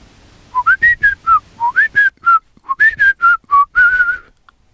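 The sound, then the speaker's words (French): A person whistles quick bursts of short, chirpy rising-and-falling notes in three rapid phrases, imitating magpie language to say "it's hot today". Fairly loud, with no talking. “Vous pourriez nous dire quelque chose en pie Eh bien, dites, euh, il fait chaud aujourd'hui.”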